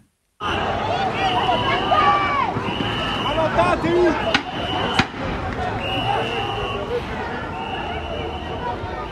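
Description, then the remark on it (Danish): A noisy crowd of street demonstrators with shouting and running feet as French gendarmes in full riot gear with shields, helmets and bulletproof vests charge them with raised batons, shrill police whistles blowing repeatedly in long blasts, and a couple of sharp bangs midway through the commotion, late in the evening. “Jamen, det er lyden af franske gendarmer, der stormer demonstranter med fløjter i munden og løftede politistav.”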